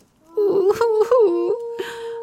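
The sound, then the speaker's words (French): A human voice imitates a wolf crying, producing a sustained, wavering wail that rises and dips before settling into a long steady moan, loud, with a brief breathy sound near the end. “Dehors, le loup pleure.”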